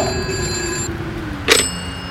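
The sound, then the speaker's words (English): A telephone rings with a bright, sustained bell-like tone that cuts off partway through, followed by a short sharp clatter, with no voices present. “Why can't people put their phones on silent when they're talking to a mythological creature?”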